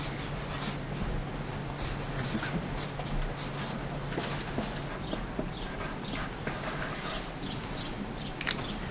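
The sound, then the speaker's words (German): A pen scratches steadily across a card, a quiet continuous rasp of writing strokes over a low background hum, with no one talking. “Du kommst ja auch ein Kärtchen. Notier das mal.”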